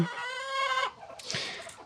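Hens cluck in a yard in a small village: a drawn-out, nasal squawk holds for nearly a second, then gives way to a few shorter, scratchy clucks. No one speaks.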